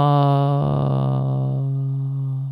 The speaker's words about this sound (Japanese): このあーって音が突然消えるじゃないですか。これがね、あのノイズゲートなんですよ。マイナス38.4以下はになると、一気に声が消えるというね。